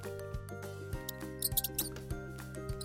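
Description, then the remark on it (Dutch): A mouse named Pien squeaks very loudly several times in quick, shrill bursts, clustered mid-way, calling for Peuk, over soft background music with a steady low pulse. “Als ze nou eens heel hard zou piepen, misschien hoort Peuk haar dan wel.”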